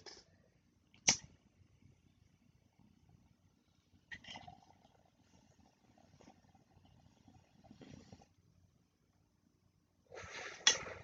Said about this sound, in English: everyone else is gonna take one bong rip too. Oh, I gotta find a fucking lighter. Where the fuck did the mine go? I just had the fucking lighter fairies, man. They're everywhere. All right, found it. Uh, so everybody take a tug with me real quick.